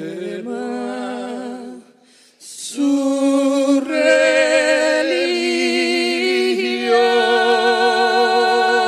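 A slow Cuban song sung by a male and female duet, their voices held in long, vibrato-rich notes with a brief hush near the start before the singing swells back in full and close.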